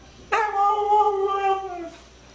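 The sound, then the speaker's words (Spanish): A dog, Mishka, lets out a single drawn-out howl with a rising-then-falling, almost word-like tone, as if talking with its owner and saying it is hungry, lasting over a second and a half, clear, with no one talking over it. “Pero ahora viendo este, este video, pues es muy posible que efectivamente, pues, si está conversando con su perrito, ¿no?”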